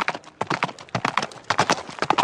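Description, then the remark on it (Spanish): A horse gallops, approaching from a distance, its hooves striking in quick, rolling clusters of sharp clops that repeat in a steady, driving rhythm, with no voices. “Allá se ve que viene a lo lejos, galopando.”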